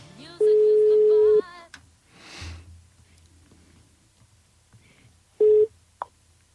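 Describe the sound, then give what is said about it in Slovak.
A telephone ringback tone: a steady, mid-pitched beep lasting about a second, then a long pause with faint rustling and a sniff, before a second ring starts and is cut short. “Zvoním.”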